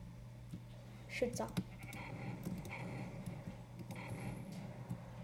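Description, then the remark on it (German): Sheep bleat in Minecraft, a few short bleats around the middle over a steady low hum and busy game noise, moderately loud. “Hier sind so viele Schafe. Wieso sind da so viele Schafe?”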